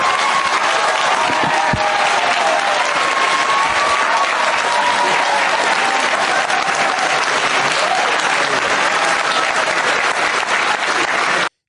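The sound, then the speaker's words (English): Sustained audience applause for a woman speaker fills the whole stretch, a dense, steady wash of many hands clapping at once, loud, with faint whistles or cheers rising now and then before it cuts off. “Give it up for her.”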